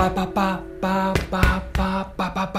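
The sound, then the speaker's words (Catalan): A voice imitates rhythmic knocking with a quick series of sharp "pa" syllables, grouped in short and long beats spelling SOS in Morse code (three short, three long, three short), spoken fairly loud. “S-O-S, és codi morse, S-O-S, auxili, està demanant auxili.”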